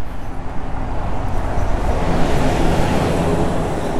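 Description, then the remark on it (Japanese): A bus rumbles past at night, its broad engine and road noise swelling and staying loud through the few seconds with no one speaking. “バスが通りました”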